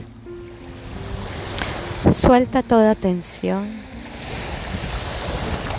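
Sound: ocean waves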